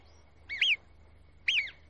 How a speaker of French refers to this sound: Ces quelques coups de sifflet très puissants avertissent toutes les marmottes du coin qui s'arrêtent net et se tiennent sur leur garde.